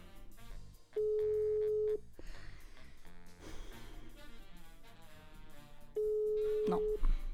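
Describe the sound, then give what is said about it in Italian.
A phone's ringback tone on an outgoing call: two steady, one-second tones about four seconds apart, with muffled background voices in the gaps between rings. “Squilla però, squilla.”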